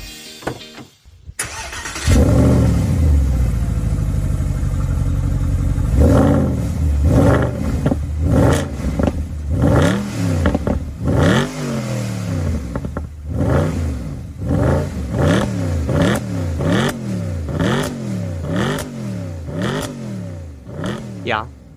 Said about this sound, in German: Ich bin ja mal sehr kritisch, was den Sound angeht, aber an diesem schönen V8-Sound gibt es meiner Meinung nach absolut nichts auszusetzen. Richtig genialer Sound. Bilderbuchartig quasi.